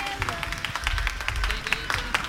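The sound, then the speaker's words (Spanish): A crowd applauding at lottery administration number 14 in La Loma shopping centre, Jaén, with dense, irregular claps forming a steady patter over a low rumble of background noise, moderately loud throughout. “Mira, Jesús, los primeros aplausos”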